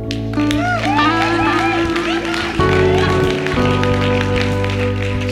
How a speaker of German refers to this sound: Applaus dafür.